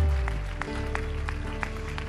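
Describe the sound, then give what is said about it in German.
An audience at a church service applauding Jesus after a prayer: a steady, dense wash of clapping with a few sharper claps popping out at a fairly regular beat, holding at an even level throughout without any voices. “Lass uns Jesus mal einen Applaus geben, dem Retter, dem Erlöser, dem der Menschen freisetzt.”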